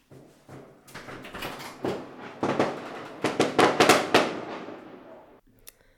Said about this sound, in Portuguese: Isto volta e meia acontece aqui. É muito normal, na verdade, não sei porquê. Mas costumam lançar bastante fogo de artifício nesta zona. No verão, nos meses de verão, às vezes até no inverno.